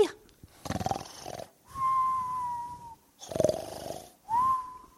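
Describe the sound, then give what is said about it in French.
A man, a professor asleep in the foxes' burrow, snores loudly in two full cycles, each a rough, rattling inhale followed by a long, high whistling exhale that slowly drops in pitch. No one speaks. “Professeur, vous vous êtes endormi dans le terrier des renardos”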